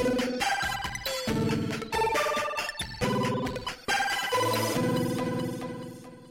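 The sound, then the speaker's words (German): A short, bright electronic segment intro jingle plays alone: a quick run of chiming, ringtone-like melodic phrases with punchy beats, loud, then fading slightly at the end. “als zweites großes Format haben wir das Was wäre wenn”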